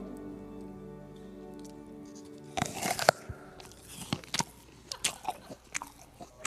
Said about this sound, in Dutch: Mensen die een appel eten. En zitten te smakken.